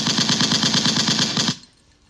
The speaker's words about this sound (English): Give me gunshots on that. Give me a couple salutes on this.